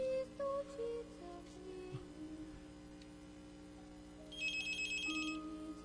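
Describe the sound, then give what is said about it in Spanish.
A telephone line rings with an electronic trill, a steady tone first and then a brighter warbling burst near the end, heard alone over a faint background hum with no talking. “no están sonando los teléfonos, Ivonne. A lo mejor estás marcando mal. Déjame ponértelo por aquí.”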